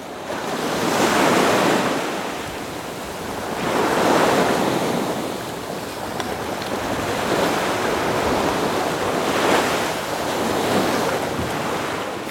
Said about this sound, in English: Relax, enjoy the wind and the waves.